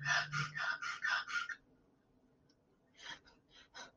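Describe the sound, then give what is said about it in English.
A person demonstrates a rhythmic breathing pattern: six quick, forceful breaths in a row, a short pause, then several softer, sharp breaths. Fairly loud, with no talking. “So breathe in through your mouth, out through your nose, and then I want you to go into a pattern that sounds like this.”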